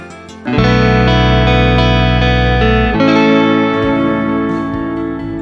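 A band's instrumental track plays loudly, with sustained, effects-heavy distorted guitar chords over deep bass, shifting to a new chord about halfway through. No one speaks.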